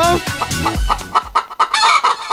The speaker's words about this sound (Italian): È contenta anche la gallina.